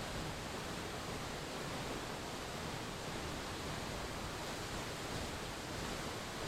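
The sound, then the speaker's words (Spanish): A steady, dense rush of falling water roars continuously from the Chorrera de San Antonio waterfall, with no pauses or voices throughout. “En el pasado, una gran oscuridad se posó sobre el territorio y usó las aguas de esta cascada como el desagüe de una mina de azufre.”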